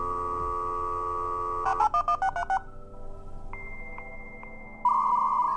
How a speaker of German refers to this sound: Ein altes Analogmodem. Wenn ich das höre, fühle ich mich sofort zurückversetzt in meine Jugend, Erinnerungen an Freunde, Musik, Schönes und auch Schreckliches kommen wieder zum Vorschein.